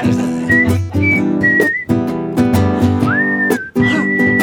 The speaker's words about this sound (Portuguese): com vocês o assovio mais charmoso do Brasil. A arquitetura do biquinho é importante.